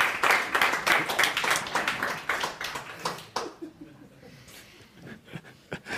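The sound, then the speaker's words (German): An audience bursts into dense, lively applause for a wish for world peace, for about three seconds, many hands clapping at once, then it thins out to a few scattered claps and quiet. “Krass, dass man für Weltfrieden noch Applaus bekommt.”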